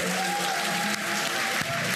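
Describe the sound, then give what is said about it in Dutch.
A fake applause track laid under a radio show: steady applause from a crowd fills the whole stretch, a dense, even wash of clapping with no breaks, at moderate volume. “Heb je nou een fake applaus ondergezet, Arjan?”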